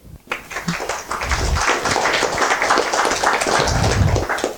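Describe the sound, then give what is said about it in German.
Audience applause welcoming a speaker to a talk: many hands clapping in a dense, steady crackle that starts abruptly and holds at an even, fairly loud level for several seconds without voices. “Deswegen herzlichen Applaus”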